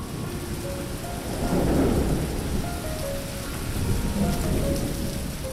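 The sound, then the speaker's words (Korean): Heavy rain suddenly pours down steadily from a dark sky onto a campsite tent on a summer camping trip, a dense hiss across the whole range, with low rumbling swells rising around the middle and again near the end, like thunder rolling beneath. “자려고 누웠는데 깜깜한 하늘에서 갑자기 엄청난 폭우가 쏟아졌고 나는 안절부절하지 못한 채 떨고만 있었다.”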